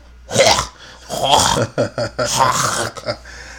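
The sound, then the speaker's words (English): A voice makes a string of harsh, breathy bursts mimicking a cough and sneeze, several rough explosive sounds in quick succession, loud. “Take one cough.”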